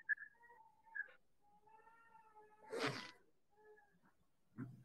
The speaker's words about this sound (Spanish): Hay un niño llorando. Por favor, atiendan a sus hijos.